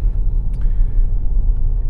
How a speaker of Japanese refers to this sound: えー、朝ね妻を送ったあと、ま車の中からお送りしていますていうことで、まあ、ちょうどね今あの大和川の上をねこう走ってるんですが